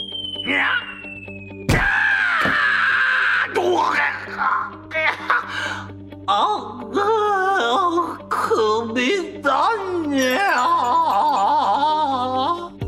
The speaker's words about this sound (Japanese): ラブール警部が話し終える前にブチネコ社長が一瞬にして消えると下の方から悲鳴が聞こえてきました